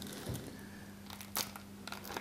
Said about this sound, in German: Und wenn man es schafft, sie auszupacken.